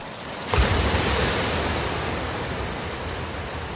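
Ocean surf washes onto the shore, a wave breaking with a bright rush of spray near the start and then a steady, broad roar of water that slowly recedes. No voices.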